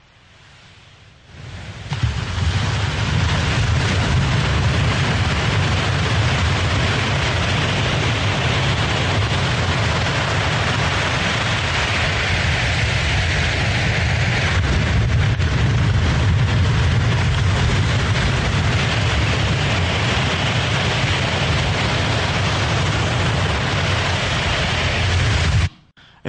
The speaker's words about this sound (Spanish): muy sutil, es en realidad es el sonido de la espumita de la ola. Eh, sí, casi con eso pierdo unos cuantos dólares en micrófonos porque estaban unos pocos centímetros del agua.